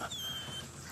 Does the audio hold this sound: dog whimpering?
yes